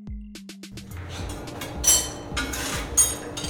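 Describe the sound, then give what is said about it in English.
Busy kitchen clatter as a pizza is made with Bacio cheese: quick sharp clinks of metal and utensils at the start, then a steady bustle of scraping, tapping and rustling as food is prepared, with a couple of louder bursts. “That's the sound of a pizza being made with delicious Bacio cheese.”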